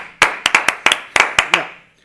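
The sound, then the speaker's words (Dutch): A brief burst of applause: about eight sharp, crisp hand claps in a quick, slightly uneven rhythm, each ringing briefly before the sound dies away, with no voices. “Even een applaus.”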